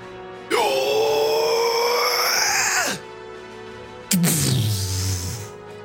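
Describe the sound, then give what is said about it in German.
A voice imitates an explosion at a crane sending out a shock wave, with two loud bursts of roaring vocal noise: a long sustained blast of about two seconds, then a shorter one that sinks into a low rumble. “Eine unglaubliche Explosion, eine Druckwelle breitet sich aus von dem Kran”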